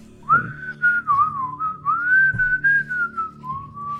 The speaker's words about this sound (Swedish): Vi hör någon komma Visslandes en eh, bit bort. Bär på en eh, famn med ved. Verkar bara liksom ta en genväg genom eh, den här lunden.